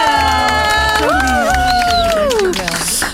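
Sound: audience applause and cheering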